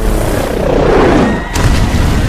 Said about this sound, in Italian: c'è appena stata un'esplosione... È estremamente scioccante. Anche qui arrivano voci non confermate di una forte esplosione.